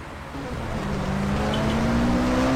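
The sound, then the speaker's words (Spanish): A taxi's engine in London revs up and pulls away, heading to the Marquee, its steady drone rising gradually in pitch as the vehicle accelerates, loud and continuous with no voices. “Nos tomamos un taxi y vamos.”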